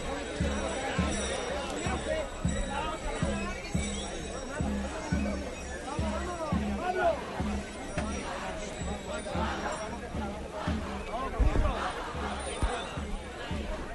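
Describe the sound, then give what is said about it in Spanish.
A pipe and tabor drum play at the front of a procession, opening the way, with steady, evenly spaced drum thumps and a thin pipe line amid the loud murmur of a surrounding crowd chatting. “ya escuchamos nuevamente la flauta y el tamboril que van por delante abriendo la comitiva.”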